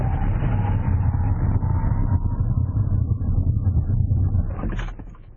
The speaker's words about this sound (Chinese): 这个刹车的感觉跟宝马不太一样啊，听到轮胎跟地面摩擦有一个很大的摩擦的声音，刹车距离倒是挺短的，但是它的整个机械的声音从轮胎到刹车到踏板，感觉比那个宝马要来的稍微粗糙一点